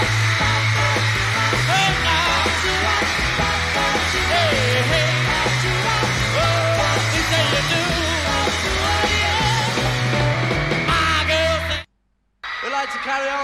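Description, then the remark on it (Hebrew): A live band plays loudly with steady bass and drums in a concert at the Hollywood Bowl while the audience screams continuously and shrilly throughout, nearly drowning the music, before a brief silence near the end; from a live concert album. “הכל פה עם, עם צווחות לכל האורך.”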